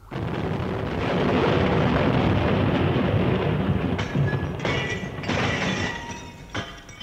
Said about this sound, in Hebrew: הייתה התפוצצות איומה. הכל נרעד, וחלק מן הרצפה העליונה נפל למטה על הרצפה שלי.